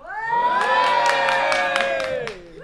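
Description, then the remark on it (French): A studio audience cheers loudly in a sustained chorus of high whooping voices, with a few sharp claps or shouts cutting through, swelling steadily and then tapering off after a couple of seconds. “Ah ils sont là, ils sont chauds, ils sont chauds.”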